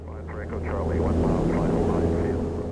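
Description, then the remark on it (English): A small aerobatic airplane's engine drones steadily and loudly, heard from inside the cabin as the plane heads down toward the ground, with indistinct voices talking faintly over the hum. “Back in the plane with Buckley, we're heading down to solid ground”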